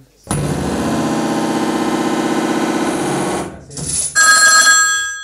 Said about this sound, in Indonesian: Wes udah ada yang telepon aja ini